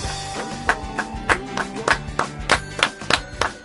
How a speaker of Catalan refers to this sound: Aquest, aquests aplaudiments han estat una mica estranys, eh?